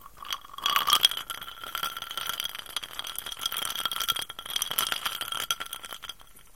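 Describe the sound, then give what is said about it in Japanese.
Ice cubes clink and rattle against a glass of Super Nikka on the rocks, a bright ringing chime at first followed by continuous jostling and scraping as the drink is stirred or swirled, fairly quiet with no talking. “スーパー日課のオンザロックを。”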